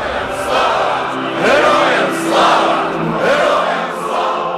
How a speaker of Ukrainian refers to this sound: крики Слава, слава, слава! І герої не вмирають, проводжали січень і труни героїв.